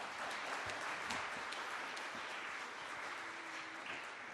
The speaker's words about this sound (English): Can we please have one more round of applause for that beautiful piano piece?